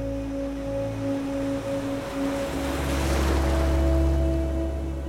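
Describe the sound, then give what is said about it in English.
Ocean waves wash onto a beach in a continuous rushing roar that swells louder midway through, with a steady low mechanical hum running underneath. No one speaks. “But back at home, um, where I live, I live really close to the to the beach um, and to the um, river side of it.”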